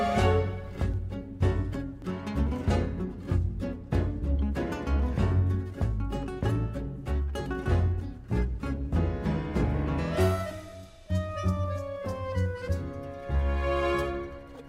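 An instrumental tango with sharp, accented rhythmic stabs driving steadily forward, then easing into a more lyrical stretch where a melodic line glides and bends above the accompaniment. No voices. From the score of the Disney film Encanto, playing in the background of a family dinner scene.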